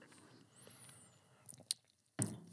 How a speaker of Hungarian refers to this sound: Meg iszok egy kócs kávét.